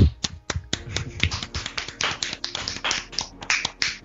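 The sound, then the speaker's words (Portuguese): A burst of enthusiastic hand clapping: many sharp, crisp claps in a quick, slightly uneven rhythm, fairly loud and steady for about four seconds, with no voices over it. “E olha, eu acho que o, o Capaldi merece uma salda de palmas de pé pelaquela cena que ele vai para as coordenadas que a Missy deu.”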